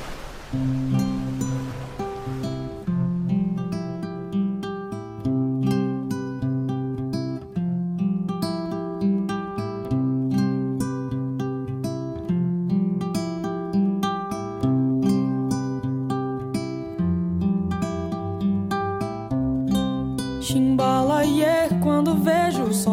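A brief wash of sea waves opens the track, then a steady instrumental song intro of plucked strings over a rhythmic bass pattern plays loudly, with no singing yet.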